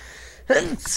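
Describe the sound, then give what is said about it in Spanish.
A single sneeze, a sudden voiced intake-like burst followed by a sharp hissing release, after a moment of near silence. “Salud, salud.”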